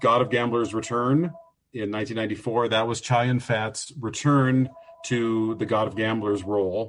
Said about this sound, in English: Sorry about the phone ringing in the background